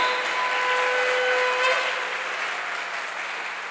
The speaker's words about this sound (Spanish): Otra vez dele fuerte ese aplauso al Señor.